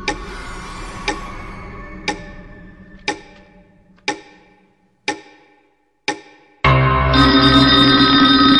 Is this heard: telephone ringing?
yes